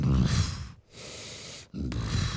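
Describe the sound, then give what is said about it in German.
A voice imitates a very large, upright-walking creature with two huge horns snorting as it passes a cave entrance: three long, rough, breathy snorts separated by brief pauses, loud with no talking. “Es schnauft einfach nur an dem Höhleneingang vorüber.”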